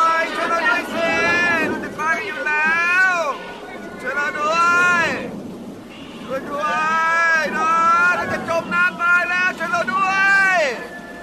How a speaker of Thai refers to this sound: เสียงฝูงชนที่ไม่สนใจต่ออำนาจของพระเจ้า ก็ร้องโหยหวนเป็นที่น่าขนพองสยองกล้าว